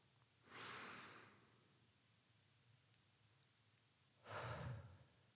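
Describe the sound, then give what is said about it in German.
A slow, deep inhale followed after a pause by a long exhale, both breathy, with a tiny click in between and no talking, taken as a guided breathing exercise. “lass uns das mal gemeinsam machen, wir beide atmen jetzt tief ein und aus.”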